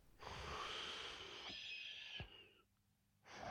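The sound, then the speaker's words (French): A wolf asleep in a bed lets out a loud, rasping snore drawn out over about two seconds, followed by a brief quiet pause before the next noisy breath begins, unaccompanied by talk. “il ronflait de plus en plus fort.”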